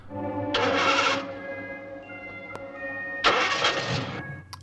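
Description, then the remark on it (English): Beaker's very noisy truck engine rumbles steadily, roaring up loudly twice in rough bursts as it starts and pulls away from the supercar lab at night, with no voices. “And as Beaker leaves in his very noisy truck, we can.”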